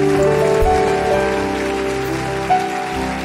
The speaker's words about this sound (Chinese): 愿意的拍手，把荣耀归给主。